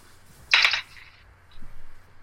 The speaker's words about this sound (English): I like how you hear the penny dropping.